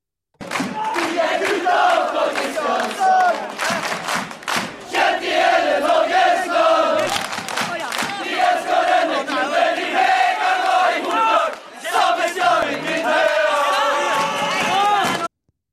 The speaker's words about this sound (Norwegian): så da tar vi en eh, jingle. Vi tar en jingle.